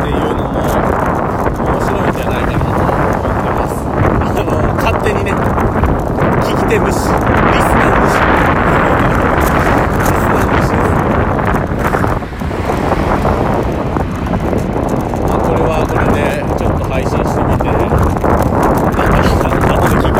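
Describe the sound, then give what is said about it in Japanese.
Loud, constant wind roar buffets a microphone mounted on the handlebar of a road bike being ridden while recording, a thick rushing blast for the whole stretch, with a voice partly buried beneath it. “ロードバイク運転しながら配信”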